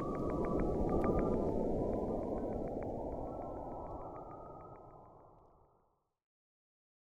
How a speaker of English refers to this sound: This is in the spirit of Halloween. This is the sounds of Saturn from the Cassini probe.